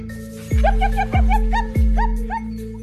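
Caged police dogs bark and whimper in a rapid run of high, yelping cries, roughly eight in quick succession, punctuated by three deep, booming thuds, all echoing.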